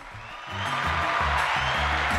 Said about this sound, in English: I, I feel really uh, welcomed by that uh, warm round of applause.